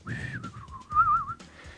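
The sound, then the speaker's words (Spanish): A person whistles a short, wavering melody, the pitch gliding up and down in one continuous line, clear over a faint low background rumble. “Y hay una canción este, que es un cuate chiflando”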